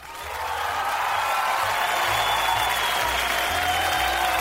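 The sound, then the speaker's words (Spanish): Steady applause from an audience welcoming a guest, a dense wash of clapping that swells in quickly and holds at an even, fairly loud level throughout, with no voices standing out. “Y recibimos con los aplausos al señor Luna.”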